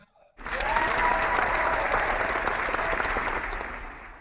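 A studio audience applause sound effect starts abruptly and holds steady, a dense wash of many hands clapping at once with a few faint cheers mixed in, fading slightly at the end.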